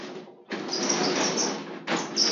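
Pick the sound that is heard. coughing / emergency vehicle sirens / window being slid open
window being slid open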